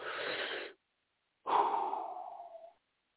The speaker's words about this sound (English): deep breath real quick. I feel like I've been going at this for about 45 minutes without even breathing.